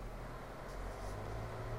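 Steady low rumble of car road noise from inside a vehicle driving at night, a constant droning hum with a faint hiss on top, fairly quiet and unbroken, with no voices.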